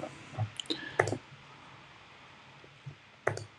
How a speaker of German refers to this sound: Du klickst so schnell drauf.